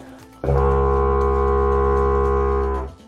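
A deep, buzzing drone from lips vibrating into a wind instrument, held steady and loud for over two seconds before fading out, with no voices.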